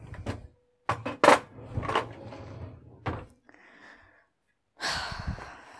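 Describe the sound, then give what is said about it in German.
A bottle opener is dropped into a cutlery drawer with sharp metallic clinks and rattling, followed by the drawer sliding and bumping shut, fairly loud with no talking. “Also behalte ich den Flaschenöffner von Dr. Lange und tue ihn zurück an seinen Platz, nämlich in meine Besteckschublade.”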